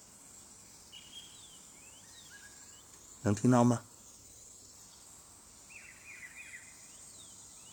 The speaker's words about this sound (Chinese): 所以今天节目的最后，我想打开窗，请大家听一听外面的鸟儿的鸣叫